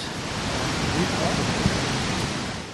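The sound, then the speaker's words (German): A steady, dense roar of rushing water fills the scene without pause, broad and powerful like a large waterfall with masses of water plunging down, with no distinct individual splashes. “Mit ungeheurer Wucht und gewaltiger Breite stürzen sich die Wassermassen nach unten.”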